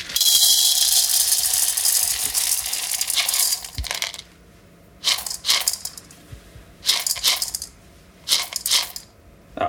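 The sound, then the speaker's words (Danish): Green coffee beans pour from one bowl into a second bowl standing on a zeroed scale, weighing out 260 grams, in a steady, bright rattling rush for about four seconds, followed by three shorter bursts of beans clattering in, with quiet pauses between them. “Den ene skål, den kan jeg lige nogle bønner op med.”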